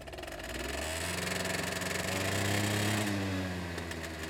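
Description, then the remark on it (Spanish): A motorcycle engine drones past, its buzzing tone swelling to a peak, then dropping in pitch and fading as it moves away. No voices are heard. “¿Qué hacen andando en moto?”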